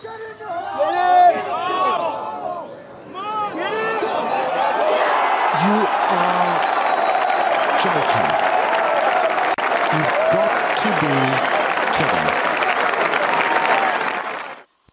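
Excited shouts rise briefly before a golf gallery erupts into loud, sustained cheering and applause that holds steady for about ten seconds, with scattered whoops over the clapping, after Jordan Speed plays an eagle, a 3 on a par 5 hole.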